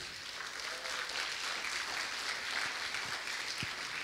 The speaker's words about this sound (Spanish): porque no le damos un aplauso al Señor para recibir a nuestro hermano Chuy?